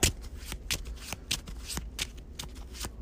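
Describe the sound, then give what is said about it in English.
A player's deck of cards being shuffled during a card game, a rapid series of crisp riffling snaps and soft flutters repeating over a few seconds, with no voices. “And then shuffle my deck.”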